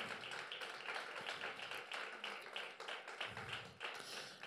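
A crowd claps steadily in praise to the Lord, a dense, continuous patter of many hands filling the room at moderate loudness, with no voices rising above it.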